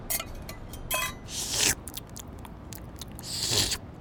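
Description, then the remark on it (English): Wet chewing and biting on leftover peaches, with quick crunchy clicks and two longer squelchy bursts of munching on the soft fruit. No talking. “Maybe there's still just a taste left?”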